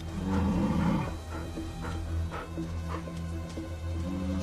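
Deep, rumbling growls and short snarling bursts as a wolf harasses a bear to stop it eating, hounding it from every angle, continuous and fairly loud, with a sustained low throaty roar beneath the sharper outbursts.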